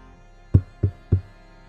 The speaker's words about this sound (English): Ty's going to the door. and then you, as you go up to the door, you suddenly hear a. Sai gently knocks and then sends an inquisitive ping to uh, Buddy.